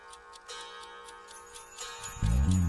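A steady, even ticking repeats several times a second at moderate volume, like a clock, until a loud low humming tone with layered harmonics cuts in near the end.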